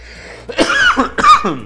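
Two harsh, throaty coughs from a smoker in quick succession, fairly loud, with a short pause between them and no talking around them.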